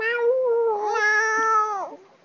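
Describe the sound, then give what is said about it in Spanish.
A person mimics a cat's meow with one long, drawn-out nasal cry that wavers in pitch and falls away at the end, loud. “Solo quiero maullar”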